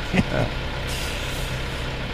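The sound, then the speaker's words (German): A car engine runs steadily with a low, continuous rumble and a broad airy hiss, after a short louder burst right at the start. “Natürlich ist das ein E, das ist ein Auto.”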